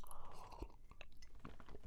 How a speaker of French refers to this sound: Mon Dieu, le, son de la gorgée.